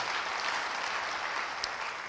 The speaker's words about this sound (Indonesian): Yang mau beri tepuk tangan bagi dia. Haleluya.